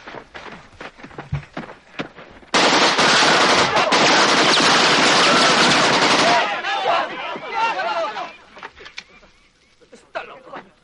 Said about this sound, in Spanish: Este es el rifle de asalto AK-47, el arma preferida de vuestro enemigo. Hace un ruido característico cuando lo disparan. Así que recordadlo.